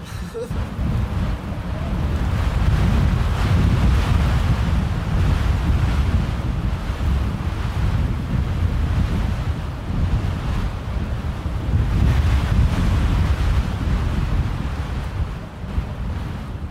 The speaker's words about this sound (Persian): وقتی یک بادی از قطب شمال میاد این باد میاد این شهر رو نوازش میکند و مار میبرد به منهای 40 50 درجه و ما همینطور یخ میزنیم